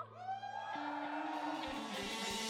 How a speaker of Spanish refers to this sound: Fuerte otra vez un grito de júbilo.